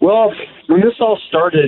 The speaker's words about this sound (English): So I apologize for the echo right now.